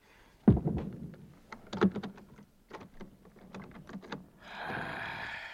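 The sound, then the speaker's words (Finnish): A door swings shut with a solid thud, followed by a quick run of clattering clicks and knocks from the latch and handle, ending in a soft rushing hiss. No one speaks. “Ah, sulje ovi.”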